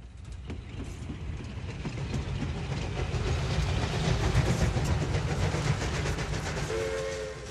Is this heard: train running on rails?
yes